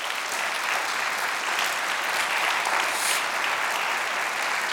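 Sustained applause from a crowd for a person called to the front, a dense, steady patter of clapping hands at an even loudness for several seconds, with no voices standing out.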